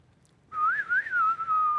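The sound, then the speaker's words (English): A person whistles a short, Western-style melody imitating the whistle from old Western movies, the clear tone sliding and wavering up and down for over a second after a brief silence, fairly loud with no talking. “You ever seen those old Western movies where there's that one little alley, that dirt path that's right in between all the saloons and the barber shop, and see that tumbleweed, and, and you hear the whistle.”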